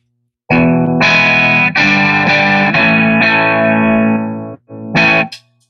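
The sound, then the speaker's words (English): Electric guitar through a Fender blackface Twin amp: loud, ringing chords struck one after another and left to sustain, then a short gap before one last brief chord. No voices. “that's kind of the blackface, you know, your standard twin.”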